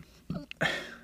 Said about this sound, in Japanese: ゲップ出ちゃったな。